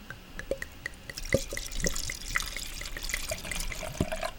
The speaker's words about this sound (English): So we're going to do the wine ASMR twist off cap, pour, and sip. Oh, I love that sound. Nice little ASMR sound there. All right, we're going to pour the wine